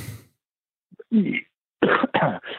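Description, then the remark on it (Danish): A short series of coughs: a throat-clearing rasp, then two or three harsh bursts in quick succession with brief pauses between them. “Øh, et, passende host.”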